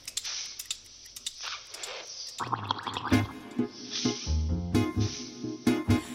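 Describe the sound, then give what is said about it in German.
Irregular wet popping and gurgling, like liquid bubbling, fills the first couple of seconds, then a music track kicks in and carries on to the end with more bubbly clicks over it. “Wir überlassen erstmal das Blubbern der Band …. Die sind im Labor unterwegs.”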